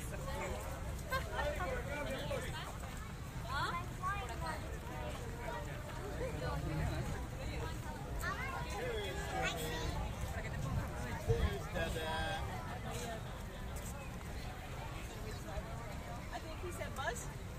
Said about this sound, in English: Now, join my family on our two day trip to Walt Disney World, brought to you in immersive binaural sound as we stop in front of Cinderella's castle and watch the autumn version of Mickey's Royal Friendship Fair.